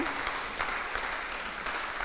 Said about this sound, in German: Es ist was, ja, man kann ruhig mal klatschen und Gott Danke sagen.